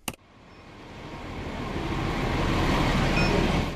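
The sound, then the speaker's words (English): A large city bus in Wellington, New Zealand, rumbles up with a deep engine drone that swells steadily in loudness, with faint high squeaks over the broad road noise and no voices. “Wellington commuters will soon hear those noises more frequently again after Metlink announced it has hired more than 100 bus drivers from overseas, which is enough to reinstate all suspended bus services.”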